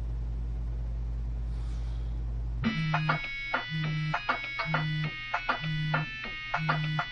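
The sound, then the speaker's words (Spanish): After a low rumble, a mobile phone lying on a bed in a room starts ringing with a repeating electronic ringtone, and a buzzing vibration pulses in a steady rhythm alongside it. “El móvil está sobre la cama.”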